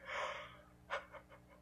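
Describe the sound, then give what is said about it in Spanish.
A long, breathy yawn, followed by a few short, softer exhaled breaths trailing off. No one speaks. “disculpen en serio quiero dejar de bostezar pero no puedo”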